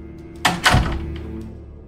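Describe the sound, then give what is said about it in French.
A conference room door swings shut with a quick scrape followed by a solid, low thud, then a faint hum settles. No one speaks. “Il glisse doucement la tête à l'intérieur et fait un léger signe approbateur au petit groupe réuni dans la salle, puis referme la porte.”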